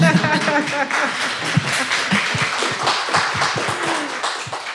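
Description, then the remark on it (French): An audience claps together in a dense, steady burst of applause lasting several seconds, with a few voices rising over it near the start. “Et du coup, oui, on peut l'applaudir.”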